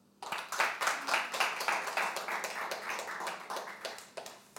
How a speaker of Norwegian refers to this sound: Eh, så da gjenstår det egentlig bare å gi ordet videre. Gi en varm applaus til